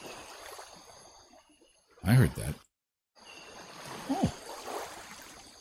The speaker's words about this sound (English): got some ocean sounds.